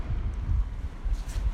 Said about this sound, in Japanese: ちょっとね波浜辺でだいぶね海の近くなんで波の音がでかいかもしれませんね